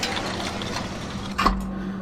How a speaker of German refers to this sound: Es ist 5.30 Uhr morgens. Remy nimmt die Bergbahn auf den Gipfel.